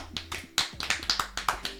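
Brief applause for the DJ: about a dozen sharp, crisp claps in a quick, fairly steady rhythm, moderately loud over a faint low hum, with no talking.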